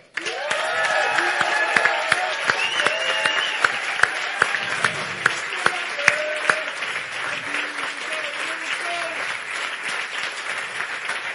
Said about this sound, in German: Großen Applaus für